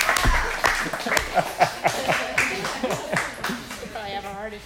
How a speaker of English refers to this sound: Hey. Can we get an applause out there? Hey. Big announcement.